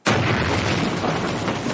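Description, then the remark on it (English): A sudden, loud explosion in a film bursts in and keeps roaring with heavy, rumbling low-end debris noise, a powerful cinematic blast with no voices. “And then have everybody jolted out of their seats by the impact of the explosion.”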